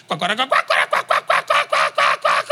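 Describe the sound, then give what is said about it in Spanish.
A voice imitates a clucking hen, starting with a rising squawk and then settling into a steady run of about ten rhythmic, nasal clucks, fairly loud. “Cuando las cosas son regulares, entonces somos como la gallina.”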